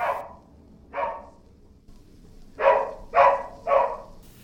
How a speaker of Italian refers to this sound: Sta bene, scodinzola, abbaia e chiede coccole, mangiare e bere, come sempre.